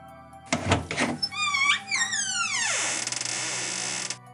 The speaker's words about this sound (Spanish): De repente, oye el sonido de su puerta abriéndose.